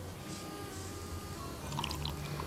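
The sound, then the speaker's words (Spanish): Water pouring steadily for a couple of seconds, a soft continuous splashing with faint bubbly gurgles toward the end; fairly quiet, with no voices. “Agua.”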